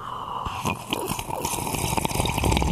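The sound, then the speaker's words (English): Wet slurping of hot coffee sipped from a mug, with a few short liquid gurgles and small smacking sounds over a couple of seconds, no talking. “I'm gonna have another little sip.”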